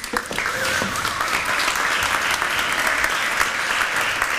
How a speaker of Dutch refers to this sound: Een warm applaus alstublieft.